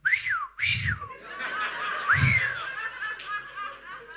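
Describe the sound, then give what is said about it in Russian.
A few sharp, swooping whistles imitating the Russian street whistle used to call out to anyone in the neighbourhood. They come in quick bursts with brief gaps, and scattered laughter runs underneath. “Вот этим именем всех можно назвать. И причем ты поворачиваешься, как будто тебя зовут Фьють.”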